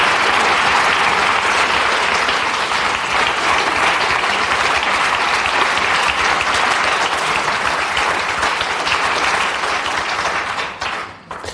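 Loud, sustained applause from an audience, a dense wash of many hands clapping at a steady level for about ten seconds before thinning out and fading at the end.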